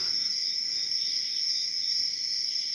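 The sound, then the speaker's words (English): A male cricket chirps steadily and continuously to attract a mate, a bright high-pitched trill that holds at an even level throughout, with no voices present. “That's the, the, male cricket's trying to get him a girlfriend by chirping.”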